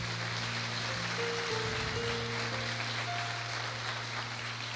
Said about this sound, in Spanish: Dele un aplauso fuerte aunque no le guste.